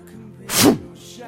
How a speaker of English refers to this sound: know what that sound is? If you've ever dug a hole, it's the first slap of the post hole digger doing its job